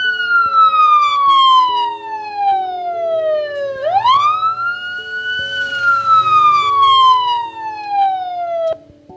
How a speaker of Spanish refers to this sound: De inmediato, el médico mandó a la ambulancia para que trajeran a la niña. Cuando la ambulancia llegó a la escuela, todos los niños corrían desesperados al ver qué era lo que sonaba.